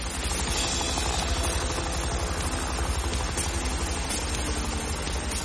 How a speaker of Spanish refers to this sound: Se dirige hacia un helipuerto donde aguarda un agente junto a un coche. El helicóptero aterriza.